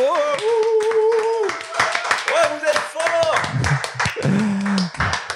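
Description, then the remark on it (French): A crowd claps steadily and densely throughout, a dense patter of many hands, while voices shout and cheer over it in drawn-out, rising calls. “Et on peut finir avec des applaudissements en transe de ah public sur Voltaire.”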